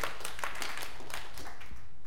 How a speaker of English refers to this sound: Yes, you can clap for that, absolutely.